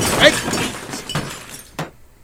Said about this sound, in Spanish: Y el televisor se cayó.